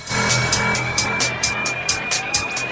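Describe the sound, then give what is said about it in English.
An electronic dance track in a build-up, with fast, evenly spaced bright percussive hits over a sustained synth tone and dense low bass, loud and driving throughout. “Always love the EDM with the build up.”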